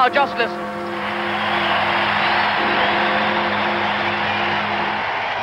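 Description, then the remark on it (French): A huge, tumultuous crowd in Whitehall cheers Winston Churchill on the balcony of the Ministry of Health in a dense, sustained roar that swells after a brief choppy opening and holds steady and loud, with faint tonal voices threaded through the din. “La foule est énorme et tumultueuse.”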